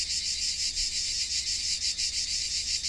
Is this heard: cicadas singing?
yes